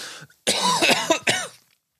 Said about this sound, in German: oh, Entschuldigung, ich muss husten.